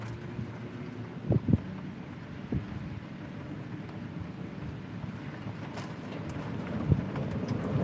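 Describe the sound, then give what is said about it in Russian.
A low rumble of thunder rolls beneath steady rain and wind noise, with a few dull thumps breaking through the continuous outdoor wash. “Ну вот, если прогремит, значит, дошло.”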